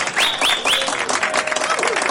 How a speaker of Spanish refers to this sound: Un aplauso para el gobernador.